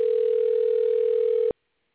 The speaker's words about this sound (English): and it doesn't look like he's answering his uh, phone.